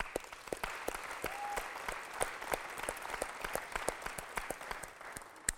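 A crowd applauds steadily for several seconds, a dense wash of many hands clapping with sharper individual claps standing out, holding at an even level throughout.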